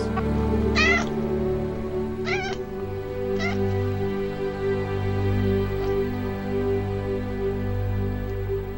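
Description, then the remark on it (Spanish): A cat meows three times in the first few seconds, clear, each cry wavering in pitch, over a steady low background drone that continues after the meows stop. “Desde hoy a la cueva puedo pasar miau, miau, para siempre jamás.”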